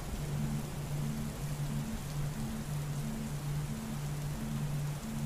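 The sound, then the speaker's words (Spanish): Steady, dense rain from a summer storm hisses without pause, a constant wash of noise, while a low humming tone pulses in a regular on-off pattern beneath it. No one speaks. “Así que disfruta de esta tormenta de verano.”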